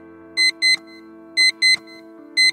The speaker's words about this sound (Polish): I tylko ten cholerny budzik.